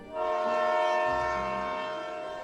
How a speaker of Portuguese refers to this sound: um trem saindo do túnel.